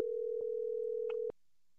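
A steady electronic phone ringing tone hums for just over a second and then cuts off abruptly, with a couple of faint clicks along the way. No one speaks.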